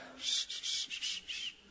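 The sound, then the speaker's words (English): A person imitates the breathy, failed whistle of their grandmother, who could not whistle: a quick run of about five airy, hissing puffs with barely any tone, fairly soft, with no talking. “Granny couldn't whistle either, she, but she do this, and I, I really can't mimic it.”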